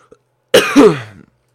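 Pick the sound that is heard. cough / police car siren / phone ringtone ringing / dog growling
cough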